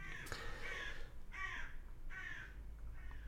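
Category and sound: bird, crows cawing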